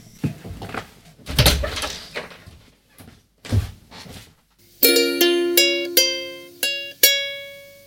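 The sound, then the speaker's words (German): A door rattles and thumps open with a few clunks, followed by a bright doorbell chime ringing out several ringing notes in sequence, each decaying, with no talking. “Und es klingelt. Ich muss mal kurz an die Tür.”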